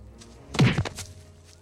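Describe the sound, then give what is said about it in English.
A punch lands on a man with a dull, heavy thud, fairly loud, followed by a brief rustle before fading into quiet background noise. “Punch him.”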